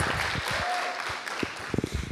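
Audience applause, a dense wash of many hands clapping steadily for about two seconds, with a few voices and louder individual claps standing out near the end.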